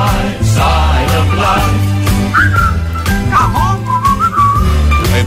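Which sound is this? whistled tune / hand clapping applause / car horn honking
whistled tune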